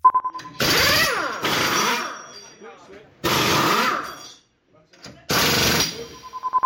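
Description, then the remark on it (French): Pneumatic wheel guns fire in four loud, rattling bursts of about a second each, spaced by short pauses filled with a faint high hiss, harsh like rapid hammering, as a Formula 1 team practises changing tyres at Enstone. “Alors, c'est pas de la perceuse, hein, mais vous, êtes entraîné euh, à, à, changer les pneus d'une Formule 1 Effectivement, il y a dans les locaux d'Enstone, un endroit où l'équipe de Formule 1 s'entraîne”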